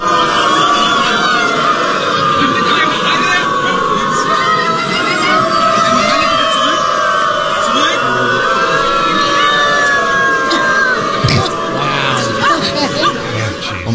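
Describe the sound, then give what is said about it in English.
A large crowd of people in Berlin who identify as dogs gather and howl and bark like dogs, many voices overlapping in long wavering cries that carry on loudly and without a break. “So people in Berlin who identify as dogs all decided to get together to have, I guess, a barking and howl fest.”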